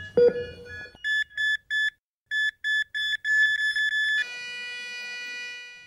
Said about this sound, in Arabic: لم استفق من هذه الحاله الا برنين هاتفي ابن خالتي يتصل